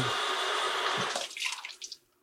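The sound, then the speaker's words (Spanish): Water from washing splashes and drips into a container where it is being collected for reuse, a steady wet pattering that breaks into a few separate drips before fading out. No one speaks. “Y juntar el agua, esta agüita aquí juntándola para”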